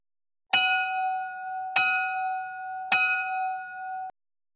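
A bright bell is struck three times at an even, unhurried pace, each clear metallic ring sustaining into the next before cutting off, played as a jingle. Moderately loud, with no voices.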